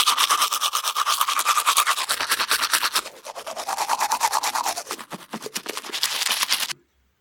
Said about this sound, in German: Eine Zahnbürste.